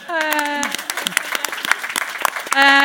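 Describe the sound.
An audience breaks into applause, a dense patter of many hands clapping at once. A loud sustained voiced tone sounds before the clapping begins and returns as it ends.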